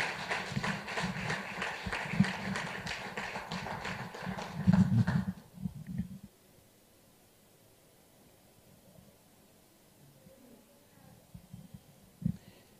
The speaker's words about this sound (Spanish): Amén. Amén. ¿Cuántos dicen amén? ¿Cuánto le dan un fuerte aplauso al Señor en esta tarde?